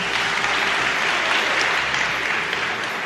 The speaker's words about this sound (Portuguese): Palmas, né, gente? Palmas.